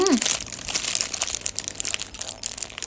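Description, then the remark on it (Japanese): Crinkling of the paper wrapper of a plain (non-cheese) Tsukimi Burger bought as takeout, being handled: a continuous crisp rustle with irregular crackles throughout, and a brief voice sound at the very start. “正解です。月見バーガーの肉った音です。”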